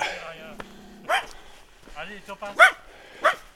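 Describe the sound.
A small white dog, met with hikers on a forest mountain trail within view of the Vercors range, gives three or four sharp, high-pitched yaps spaced out over a few seconds, with a person's voice heard briefly before the barking starts.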